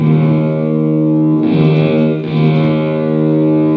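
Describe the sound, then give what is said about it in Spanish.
A sustained, washy guitar reverb tail rings on its own with no pick attack, a dense harmonic drone that shifts slightly in texture and stays loud throughout. “Solo está sonando la rever, no el golpe que le doy yo con la guitarra.”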